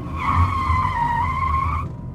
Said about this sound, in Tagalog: may karo ng patay na mabilis na dumaan sa harapan ko